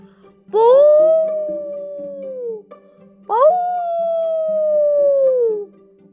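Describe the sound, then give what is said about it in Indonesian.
An elephant, Mahmud, gives two long, mournful trumpeting cries, each rising sharply then sliding slowly downward over a couple of seconds, loud, separated by a short pause with a low hum underneath, as its belly is stabbed with a stick when it refuses to move toward Mecca, between Muzdalifah and Mina. “Jerit gajah pilu.”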